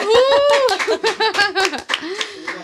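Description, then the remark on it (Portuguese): A quick run of sharp hand claps, mixed in with loud laughing and excited vocal sounds that carry over most of the claps. “Palmas!”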